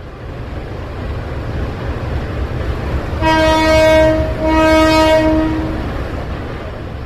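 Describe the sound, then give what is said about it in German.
A freight train known as La Bestia rumbles steadily in the small town of Ixtepec in southern Mexico, its horn sounding two long, loud, harmonically rich blasts in quick succession midway through; no one speaks. “Denn der Güterzug, den alle La Bestia nennen, bringt zahlreiche Migrantinnen und Migranten in die Kleinstadt Ixtepec im mexikanischen Süden.”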